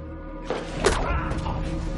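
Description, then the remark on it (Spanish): Two dull, heavy blows land against a low rumbling background, the second one sharper and louder, like a head being struck with a telephone. “Le golpea la cabeza y le da una paliza con el teléfono.”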